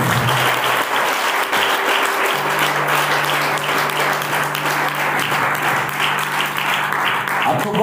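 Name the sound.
audience applause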